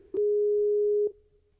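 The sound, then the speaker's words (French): A single steady telephone ringing tone heard while placing a call, a clear, even electronic beep lasting about a second, starting and stopping with soft clicks, heard alone with no talking. “mais on va l'appeler si vous êtes OK.”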